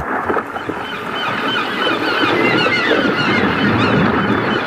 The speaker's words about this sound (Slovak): S čajkami v úvode aj v závere.